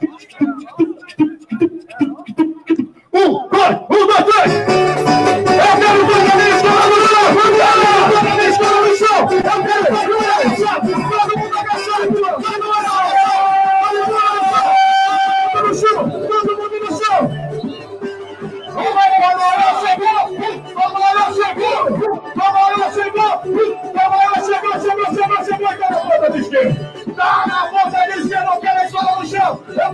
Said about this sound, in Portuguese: A escola inteira ajoelhada, esperando pelo grito de guerra do … para começar a nossa luta.